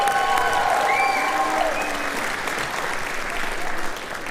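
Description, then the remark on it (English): A crowd applauds a jazz workshop band's trumpet and alto sax players after a bluesy tune, the dense clapping loud and sustained, with faint cheers and whistles rising through it before it tapers slightly near the end. “Give them some love.”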